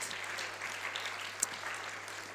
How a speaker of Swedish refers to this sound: Så vi prisar Herren. Ska vi ge Herren en applåd för hans trofasthet?